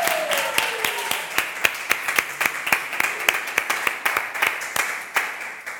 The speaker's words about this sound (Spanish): Un aplauso para Andrés.